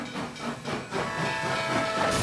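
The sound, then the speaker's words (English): A steam train whistle sounds over a rushing hiss of steam, its steady tonal blast sustained for a couple of seconds, fairly loud with no voices. “These SPACs jumped on board the electric hype train, but the hype train rarely takes you to where you want to go. All aboard!”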